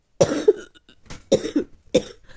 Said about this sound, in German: dann hustest du erstmal, sonst funktioniert es nicht